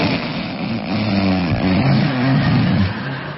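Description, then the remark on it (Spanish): A loud, harsh snore, a rough, rattling rumble with a low buzzing pitch that holds steady and strong for a few seconds without pause, with no voices over it. “Y al final de la apnea viene un ronquido intenso”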